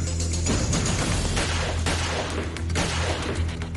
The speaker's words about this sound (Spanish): Carla realizó tres disparos y el cuarto a quemarropa